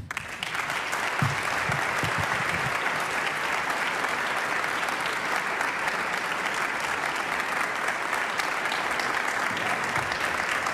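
Sustained audience applause in the main hall of the Teatro Colón, broadcast live, for two bandoneon players, father and son. A steady, dense wash of many hands clapping at an even loudness, with a few faint low voice murmurs at the start.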